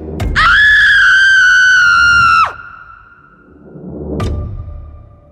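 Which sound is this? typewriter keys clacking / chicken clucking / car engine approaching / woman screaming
woman screaming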